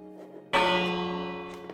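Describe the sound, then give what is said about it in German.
A village bell in a video game is struck once, its bright metallic clang ringing out loudly and sustaining with a slow, shimmering decay; there is no talking. “Was bin ich jetzt an der Glocke, Leute?”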